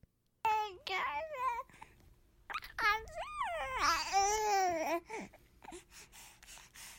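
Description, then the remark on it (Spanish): A three-month-old baby babbles and coos in long, sing-song vocal bursts, fairly loud, with short pauses between sounds and a few softer breathy noises toward the end. “Pero ahora vamos a escuchar qué decía en ese entonces, con tres mesecitos.”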